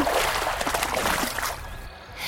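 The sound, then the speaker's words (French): River water in a forest trickles and splashes steadily for a couple of seconds, a busy gurgle like a small stream, thinning out and growing quieter toward the end. No one speaks. “Bientôt, ils arrivent à la rivière.”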